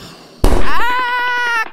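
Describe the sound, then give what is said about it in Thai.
A sudden loud explosive bang bursts out of near silence, followed by a sustained, wavering high-pitched whine that rings on for about a second before cutting off. “ระเบิดระเบิดเราจะตายกันหมดเราจะตายกันหมด”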